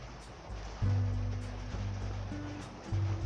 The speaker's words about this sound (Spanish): Espero que no se escuche mucho la lluvia.